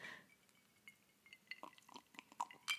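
Ice cubes clink and rattle against a glass of Cuba Libre with ice while it is being drunk, a quick, irregular series of small bright taps, some with a short ringing tone, growing a bit louder toward the end. No one speaks.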